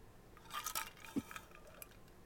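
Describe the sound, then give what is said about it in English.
Glasses clink together in a toast: a cluster of bright, ringing taps, followed by a couple of softer clinks, with no talking. “so, guys, thank you. Cheers.”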